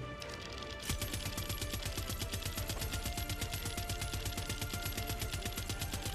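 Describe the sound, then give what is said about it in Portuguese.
Rapid, continuous machine gun fire from a video game, a machine gun found in the game and fired at ships, starts about a second in and keeps rattling in a steady, evenly spaced burst until the end, loud and without talking over it. “Achei essa metranca aqui, ó.”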